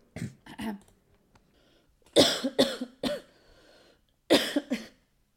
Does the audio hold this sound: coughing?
yes